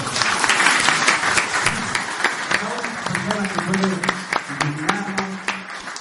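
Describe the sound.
An audience breaks into applause, a dense, steady patter of many hands clapping throughout, while a voice begins talking over the clapping in the second half.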